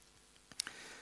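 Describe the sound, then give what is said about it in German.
A few quick, crisp crackles of paper being crumpled, clustered in a short burst midway through, fairly soft against a quiet background with no one talking. “Also das kann man sich wirklich jetzt hier auch wie mit diesem Papier, kann man sich das vorstellen.”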